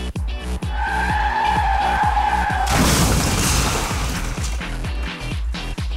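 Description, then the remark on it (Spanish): A car's tires screech in a loud, sustained skid that ends in a crashing burst of broken debris, with a steady thumping beat running underneath throughout. “si la Tierra se detuviera seríamos como pasajeros dentro de un carro que tiene un accidente y saldríamos volando”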